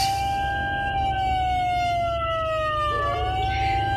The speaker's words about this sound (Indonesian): Aku terkejut saat mata baru saja terpejam beberapa menit. Suara alarm dari toa speaker menyala begitu keras.